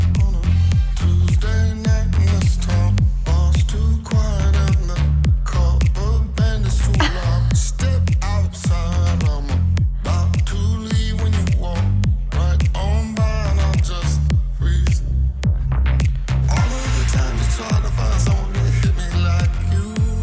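A loud, continuous dance-pop track produced by a Norwegian DJ and producer, with a steady thumping bass beat and a male actor singing a melodic line over the synths, playing without pause from start to finish.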